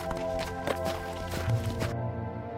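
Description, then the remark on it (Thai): Quick, hurried footsteps of a merchant walking away from a house as fast as possible toward the main road tap out a steady, fast rhythm at moderate loudness over a sustained tonal musical background, with no one speaking. “เขาได้เดินจากบ้านหลังนั้นไปโดยเร็วที่สุด เดินไปไม่หยุดจนมาถึงถนนใหญ่อีกครั้งหนึ่ง”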